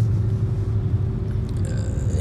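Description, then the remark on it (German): A car overtakes the speaker on the road, a steady low engine and tyre rumble with a brief rising whoosh toward the end; the overtaking car has words stuck on its rear window with adhesive tape. “Und gerade eben hat mich ein Auto überholt, auf dessen Heckscheibe der Fahrer, mutmaßlich der Fahrer, mit so Klebestreifen, äh, hier so Klebeband, äh, die Worte geklebt”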